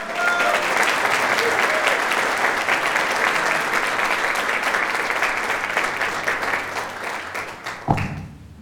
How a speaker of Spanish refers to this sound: Recibamos con un fuerte aplauso a Esteban Amestegui